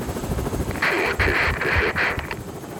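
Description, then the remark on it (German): A rescue helicopter sent for a mountain rescue: its rotor thumps steadily, a loud low rhythmic chop with bursts of hissing, rushing air layered over it. “Ja, und dann hat die Rettung tatsächlich gesagt, ja, wir schicken einen Helikopter, weil Atemwege halt betroffen sind”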